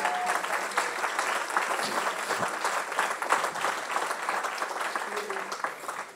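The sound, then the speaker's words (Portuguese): An audience at a church service bursts into steady, dense applause for Jesus, many hands clapping together in a continuous bright wash that holds at a fairly even loudness for several seconds before tapering slightly at the end. “Aplauda Jesus.”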